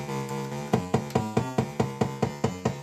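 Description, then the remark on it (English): An electronic bass drum, triggered by a clock pulse patched through a purple wire into its trigger input, fires in a steady, even pulse, about eight quick thumps roughly three per second, over a sustained droning synth tone with no talking. “Now I'm going to plug it into the trigger on our bass drum here so that you can hear it.”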